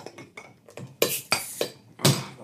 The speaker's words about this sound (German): ein Knacken, ein Knallen, ein Klimpern hören, äh, während wir versuchen, die äh, Biere aufzumachen. So, wie rum muss ich den Hobel halten hier?